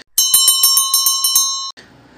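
The doorbell of Cinderella's house rings once as the prince arrives, a bright metallic bell struck in a quick rattling burst for about a second and a half, loud, then cut off, leaving a faint noisy tail.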